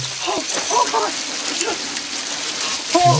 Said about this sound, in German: Also, wie gesagt, er steigt in die Dusche, dreht das Wasser aus äh, an, und